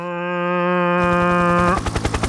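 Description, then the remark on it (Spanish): A helicopter sound effect: a steady, droning engine whine gives way to loud, rapid, rhythmic rotor chopping that continues to the end, with no voices. “Es un helicóptero.”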